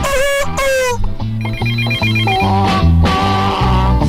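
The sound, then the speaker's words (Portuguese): A telephone rings with an incoming listener call: a loud, melodic electronic ringtone of bright repeating tones over a steady, pulsing low rhythm, playing continuously for about four seconds after a brief voice at the start. “Antes de falar, vamos ver o ouvinte, ó. Alô, boa tarde.”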